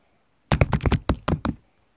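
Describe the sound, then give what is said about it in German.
A quick burst of about eight loud hand taps or knocks on a hard surface, rattling out in a rapid uneven rhythm like an improvised drumroll for just over a second. “Nämlich, jetzt musst du noch lauteres Trommelwirbel.”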